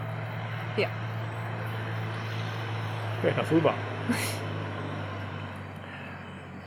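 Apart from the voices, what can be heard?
road traffic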